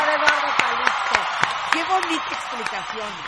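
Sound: audience applause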